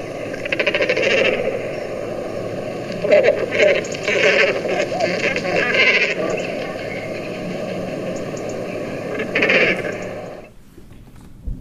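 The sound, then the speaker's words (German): Harsh, croaking 'quarr' calls of a seabird repeat in a dense, overlapping chorus for about ten seconds, loud with a few sharper bursts, then cut off abruptly into near silence. “Ja, aber dann lasse ähm, ich doch mal jetzt hier den Laut auch mal, wie er, wie er ruft. Ja. Oder? Das, Quar das Krähen oder Quarren, wie das hier beschrieben wird.”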